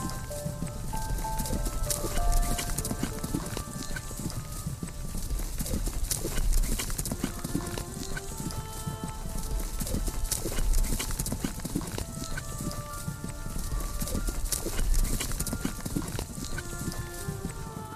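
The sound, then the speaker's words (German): Steady, rapid hoofbeats of a white horse galloping through snow after changing from a trot, pounding continuously, with a few faint snorts and whinnies over a dense, rumbling background. “dich an der weichen Mähne des Tieres fest, als es vom Trab in den Galopp wechselt und so schnell durch den Schnee jagt, dass er zu allen Seiten davonfliegt.”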